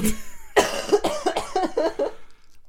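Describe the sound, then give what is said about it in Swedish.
A series of rough coughs in quick succession from a person who is sick, loud and raspy, followed by a brief fade into quiet. No one speaks. “Ja, oh, förlåt alla lyssnare för min hosta.”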